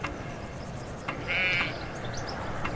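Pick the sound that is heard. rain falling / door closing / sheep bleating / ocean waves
sheep bleating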